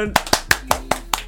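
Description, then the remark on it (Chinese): A brief burst of applause welcoming a guest introduced as the director: six crisp, evenly spaced hand claps in a quick steady rhythm, loud and sharp, with a faint voice murmuring underneath. “他在广阔的网络生态中潜水了一阵子，让我们掌声欢迎主任。”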